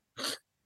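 A single sharp sneeze, a short explosive burst of breathy noise lasting about a quarter of a second, standing alone with silence before and after.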